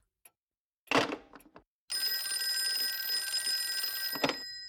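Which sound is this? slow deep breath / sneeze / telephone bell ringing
telephone bell ringing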